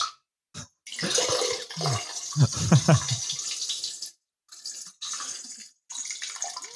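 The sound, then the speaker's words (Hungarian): Trickling running water from someone who went to the toilet during a Zoom call hisses steadily in several bursts separated by brief silences, with a short laugh and a voice breaking in partway through. “Ez a csorgó hang, ez micsoda?”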